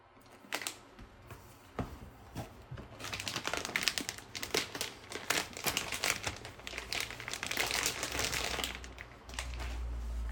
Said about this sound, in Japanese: はい12月25日朝6時に仕事が終わり追いだきをしてお風呂に入り風呂上がり昨日ユニクロ閉店間際に買ってきた新品のヒートテック極暖かなの封を開けて袖を通しました